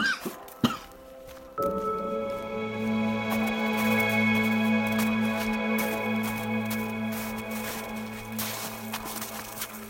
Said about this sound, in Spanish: Sin soltarla de los dientes, acercó la cerilla a la corteza de abedul, pero el azufre que despedía la llama le entró por la nariz, llegó a sus pulmones y le produjo un ataque de tos.